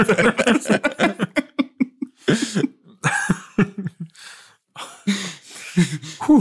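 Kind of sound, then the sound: human body sound, sneeze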